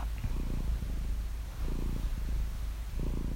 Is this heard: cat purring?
yes